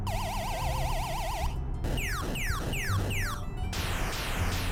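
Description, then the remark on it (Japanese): A police siren blares, sounded to clear a slow car from the passing lane, starting with a fast warbling yelp, then cycling through about four quick falling swoops before switching pattern again. Loud and continuous, with no voices. “ちょ待て待てなんだこのサイレンの音はおい前のトロトロ運転のお前さっさとどかんかい”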